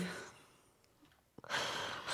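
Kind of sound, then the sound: human body sound, heavy breathing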